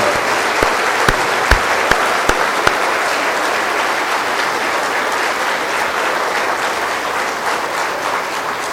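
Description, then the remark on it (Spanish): An audience applauds steadily and loudly for several seconds, a dense wash of clapping from many hands with a few sharper individual claps standing out near the start, no voices heard. “Vamos a darles un fuerte aplauso con la alegría de haber cumplido esta misión.”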